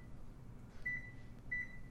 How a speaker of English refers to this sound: What are you making? Did you not think I would notice you're using a microwave?